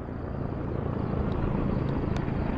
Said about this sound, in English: A helicopter passed above. It disappeared almost instantly, but its low sonic heartbeat continued to echo through the projects.